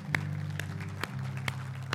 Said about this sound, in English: Can we give Jesus one big clap of praise?